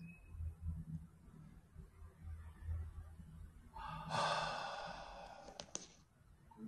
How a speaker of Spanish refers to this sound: Y tómate una respiración.